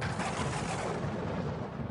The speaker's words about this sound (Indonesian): Gemuruh. Petir.